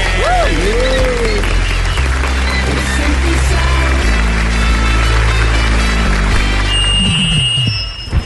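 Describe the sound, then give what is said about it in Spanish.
Loud, sustained applause from an audience welcoming Luis Pérez, governor of Antioquia, runs throughout, with music playing underneath and a few whistles and cheers rising over the clapping. “Recibamos con un fuerte aplauso al señor Luis Pérez.”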